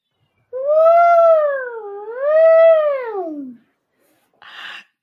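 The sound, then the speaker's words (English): A child's voice imitates an elephant trumpeting: one loud, high wavering wail that swoops down, rises again and trails off over about three seconds, then a brief breathy burst. “Can you make an elephant noise for me?”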